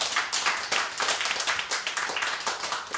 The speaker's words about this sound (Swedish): en unison applåd för dagens medverkande.